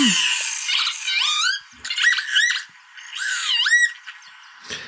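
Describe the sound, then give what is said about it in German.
Northern lapwings calling repeatedly, wheezy rising-and-falling "pee-wit" notes in quick clusters, fairly loud, with short pauses between bursts and no voices. “Der äh, Kiebitz natürlich, der Vogel des Jahres.”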